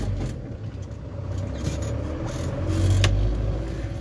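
Steady roar of road traffic, heard while the speaker travels home, with cars and motorcycles passing; engines rumble low and swell louder toward the end as a vehicle goes by, with no one speaking.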